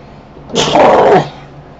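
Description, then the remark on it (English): A single sneeze bursts out, a sharp hissy onset followed by a short voiced blast lasting under a second, then quiet room tone. “And I am going to sneeze again.”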